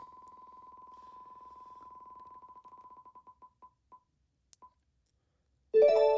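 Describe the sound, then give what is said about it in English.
A prize wheel is spun to pick a winner in a book giveaway: a rapid run of ticking clicks slows steadily to a stop, followed by a short bright chime announcing the result. No one speaks. “All right, so we're Let giving away my, my volume so everyone can hear the clicking.”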